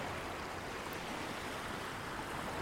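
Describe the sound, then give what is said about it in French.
A steady, soft wash of water fills the whole stretch, small waves gently lapping and breaking on a beach, with no distinct individual crashes and no voices. “Tu t'approches de l'eau tes orteils touchent les petites vagues qui se brisent doucement sur la plage.”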